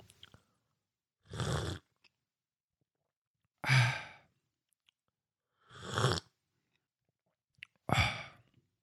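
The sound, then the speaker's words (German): Four airy slurps of a Lumumba, a hot drink of milk with real cocoa and rum, each about half a second long, separated by quiet pauses of roughly two seconds, with no talking. “Ja, ich probiere jetzt erstmal äh, zum Wohl, um ein bisschen, ich sag mal, Weihnachtsmarktgefühle aufkommen zu lassen, ein Lumumba. Soll ich schlürfen?”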